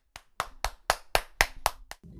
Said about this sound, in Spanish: Tan pronto me senté un batir de palmas.